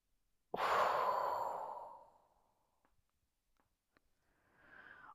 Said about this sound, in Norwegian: Og så gjør vi det endnu en gang. Vi puster godt ind. Og så holder vi pusten. Og så puster vi.